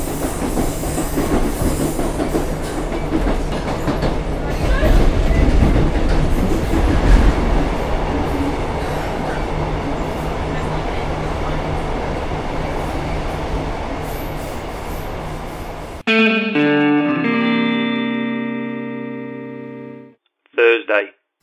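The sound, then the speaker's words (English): Steady low rumble and rattle inside a moving Northern passenger train carriage in Britain, wheels rolling over the rails for about sixteen seconds, then a sudden cut to a brief electronic chime and announcement tones. “As you leave the train, please mind the gap between the train and the platform edge.”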